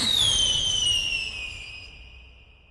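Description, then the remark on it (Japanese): An aerial firework launched into the night sky: its shrill whistle glides slowly downward in pitch over a low crackling rumble, loud at first and then fading away over a few seconds. No voices. “最後に見たのは打ち上げ花火だったって。”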